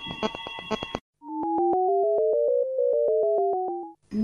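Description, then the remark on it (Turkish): Steady electronic telephone line tones hum for about three seconds as a caller's phone line is being connected, two pitches gliding slowly toward each other with a rapid, regular ticking pulse, preceded and followed by brief bursts of other sound. “Bu arada telefonumuz geldi. Şimdi Özge telefona bağlanıyor.”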